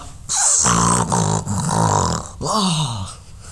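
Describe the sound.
A voice mimics snorting cocaine: three loud, harsh sniffing bursts mixed with a growly, grunting tone, the last one rising and falling in pitch.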